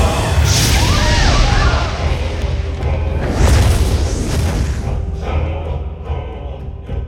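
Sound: explosion sound effect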